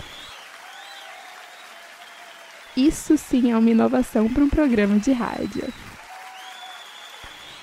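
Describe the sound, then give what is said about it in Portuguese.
Steady applause from a studio audience that came in a caravan from Vila Velha, a dense crackling patter that runs through the whole clip, with a man speaking clearly over it in the middle before the clapping carries on alone. “esse programa está com uma novidade, porque agora ele conta com uma plateia.”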